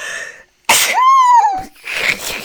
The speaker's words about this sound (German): Und da hatte ich, warte, ich muss niesen. Gesundheit.